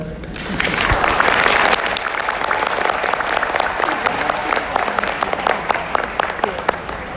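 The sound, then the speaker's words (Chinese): An audience breaks into steady applause, many hands clapping in a dense, crackling wash that holds throughout, with a few sharper individual claps standing out toward the end. “那第四种就是没有听到掌声。”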